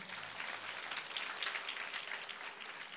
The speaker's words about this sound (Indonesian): Boleh tepuk tangan bagi Tuhan.